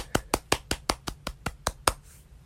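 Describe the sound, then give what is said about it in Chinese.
Hands clap about ten times in a quick, steady rhythm to celebrate the start of a new school semester, each clap sharp and bright, then the clapping stops and only faint background remains. No one speaks. “要开始崭新的一个学期，我们鼓掌鼓掌。”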